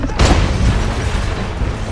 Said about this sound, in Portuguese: A barulheira e a agitação aumentaram e seguiu-se o som de uma explosão